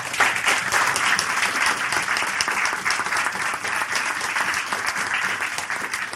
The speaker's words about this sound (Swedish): Vi tackar med en stor applåd.